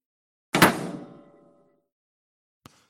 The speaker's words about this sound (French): fermez donc la porte de votre four pour que nous l'enregistrions.